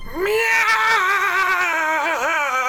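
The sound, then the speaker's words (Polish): A single long, drawn-out cat meow echoing through a church, loud, holding a steady pitch before wavering and dipping near the end, with no other sounds around it. “Miau! W całym kościele.”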